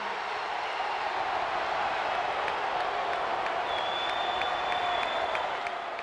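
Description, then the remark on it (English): A large wrestling audience roars in a steady, dense wash of noise with scattered clapping and shouts, holding loud and unbroken the whole time, with a faint high tone sustained in the second half. “Mean Gene, the first thing you need to do is to tell these people to shut up if you want to hear what I got to say.”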